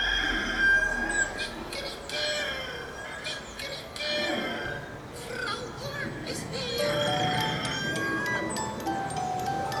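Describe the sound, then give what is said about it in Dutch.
A rooster crows a few times, its high, drawn-out calls rising over a dense, busy background of overlapping voices and noise that stays fairly loud throughout. “En de haan kraaide. Kikeriki, kikeriki, de zwarte Mina is weer hier.”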